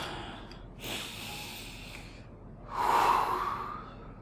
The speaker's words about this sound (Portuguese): Minha respiração aí.